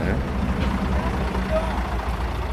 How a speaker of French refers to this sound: Il serait tout de même bon que ce bus de la RATP n'écrase pas euh, Annie Dupéré.